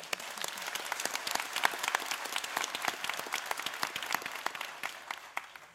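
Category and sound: crowd, audience applause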